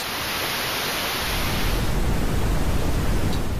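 pink noise sample

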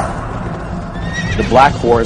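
horse neighing

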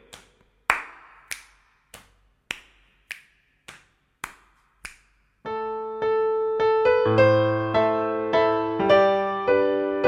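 rhythmic finger snapping

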